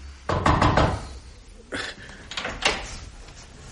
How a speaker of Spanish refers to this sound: Subió precipitadamente la escalera, llamó con los nudillos a la puerta y...